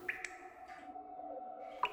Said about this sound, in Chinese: 但是在我十一岁那一年呢，我房间就起了一些小变化，我的天花板开始滴水了。